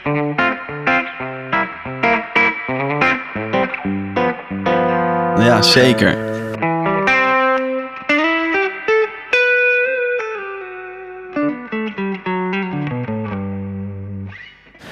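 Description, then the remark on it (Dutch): A distorted Telecaster electric guitar with a thick, flat modern neck and high frets plays a lively run of notes and sustained chords, with a brief burst of strummed noise midway, and a short spoken reply slips in over the playing. “Dit klinkt nog wel als een telen, toch?”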